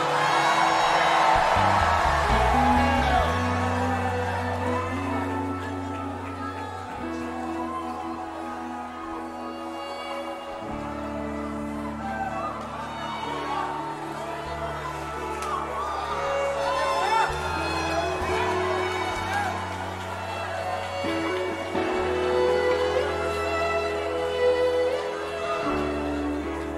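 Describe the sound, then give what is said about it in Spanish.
A large crowd at a worship service shouts, whoops and cheers in praise, giving a shout of glory in a loud, sustained roar, with deep music playing steadily underneath for the whole stretch. “alguien será promovido si se da da un grito de gloria.”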